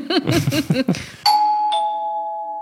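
A doorbell rings with a two-note ding-dong chime, clear and fairly loud, its tones ringing out and slowly fading. It follows a short stretch of someone talking.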